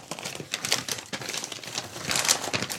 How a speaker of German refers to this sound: packt jetzt gerade äh, ein Geschenk aus und es befindet sich das Unvermeidbare darin. Raschel, raschel.